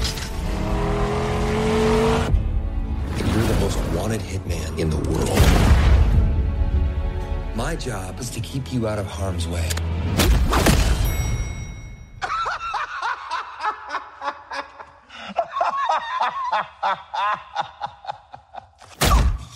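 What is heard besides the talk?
action movie trailer audio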